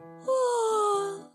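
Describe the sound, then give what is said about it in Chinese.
In a children's story, a little monkey who has just been woken gives one long, drawn-out vocal yawn lasting about a second, its moaning tone sliding slowly downward in pitch before trailing off. No words are spoken. “小猴子一副没睡醒的样子，打着哈欠说。”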